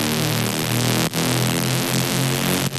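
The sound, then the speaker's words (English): A loud, buzzy detuned synth lead blending square and saw tones, holding bright sustained notes with a slight wavering shimmer and two quick breaks where the notes change. “We got the B section on, so it's a square saw with a little bit of pitch detune going on, Man, chorus, you, you get distortion.”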